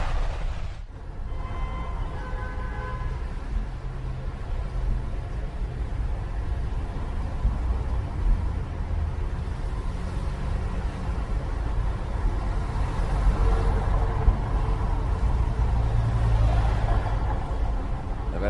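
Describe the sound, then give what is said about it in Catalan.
Continuous road traffic rumbling past in Cartagena on a Sunday at nearly a quarter to eight, a steady low drone of cars with swelling engine noise as vehicles go by, moderately loud, with no voices. “estem sentint trànsit perquè és eh, inevitable, eh?”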